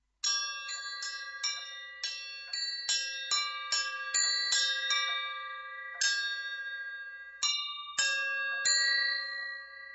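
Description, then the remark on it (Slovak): Small handmade bells made by bellmaker Dušan Peťko ring out in a quick, uneven series of strikes, their bright tones overlapping and sustaining between hits, with no voices present. “Spoločne sme si prezreli fotografie jeho zvončekov a mnohé vyseli aj priamo v dielni.”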